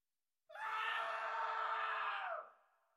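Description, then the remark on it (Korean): A single terrible human scream bursts out suddenly from downstairs in a house at about three in the morning, loud and harsh, held for about two seconds before breaking off and fading into a short echoing tail. No one speaks. “그런데 5분 후쯤 느닷없이 아주 끔찍한 비명이 들리는 것이었어요.”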